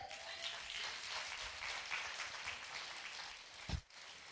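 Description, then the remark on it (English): After a prayer, a crowd gives the Lord a hand clap, with steady, dense hand clapping that holds at an even level throughout, ending with a brief louder thump near the end. “Get the Lord a hand clap.”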